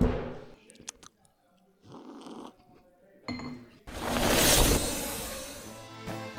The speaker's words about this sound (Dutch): Neem nog even een slokje hè, ter voorbereiding.